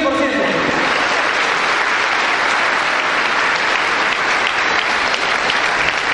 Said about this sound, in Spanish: un aplauso para ustedes